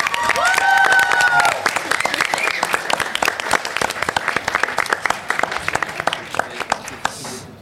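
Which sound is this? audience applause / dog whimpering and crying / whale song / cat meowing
audience applause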